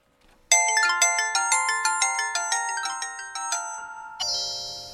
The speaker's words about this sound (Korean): 그리고 다음날 그의 연락을 하루 종일 기다리고 있는데 연락이 오지 않아 시무룩해, 시무룩해 하고 있는데 저녁이 다 되어서야 전화 한 통이 걸려왔어요.